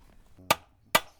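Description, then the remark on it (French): A hammer peens a scythe blade on an anvil: two sharp metallic blows about half a second apart, each with a brief bright ring, against a quiet background. “Du coup, avec le marteau, en fait, on. Ça, c'est un peu pénible pour les oreilles.”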